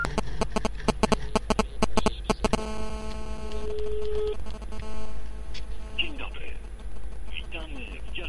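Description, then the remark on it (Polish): Rapid, rhythmic electronic buzzing pulses from mobile phone interference crackle loudly at first, then settle into a steady tonal hum, with a muffled voice faintly audible underneath near the end. “Z góry przepraszam za zakłócenia, nie jestem w stanie to sprawdzić, jak to się y, nagra.”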